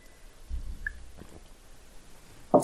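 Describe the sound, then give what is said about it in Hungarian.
Someone takes a quiet sip of a drink, with soft wet mouth and swallowing sounds, followed by a brief louder clunk at the very end. “Aha, igen, hát igazából egy, iszom egy kortyot, hogyha nem ja.”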